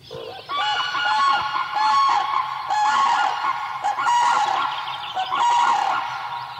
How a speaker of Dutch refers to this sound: Dit is het geluid van de kraanvogel. En eh, ja, het wordt omschreven als een trompetterend geluid. Nou ja, dat, dat is het ook.